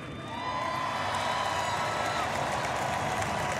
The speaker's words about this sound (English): From the coaches, from the scout team guys, from the assistant trainers, for the people in the cafeteria making us food every day, man. Let's give a round of applause to those people, man.